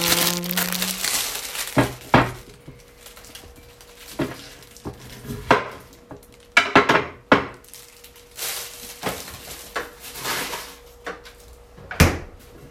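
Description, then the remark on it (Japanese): Pieces of daikon radish being dropped into a pot of broth made with mushrooms and bonito flakes, a series of irregular clunks and knocks against metal with some crinkling and scraping between them, no talking. “でも気分で大根入れるんですね大根入れます大根先だねこれ普通にね大根が先だったな”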